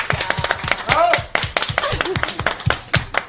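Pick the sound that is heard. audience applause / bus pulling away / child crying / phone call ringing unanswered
audience applause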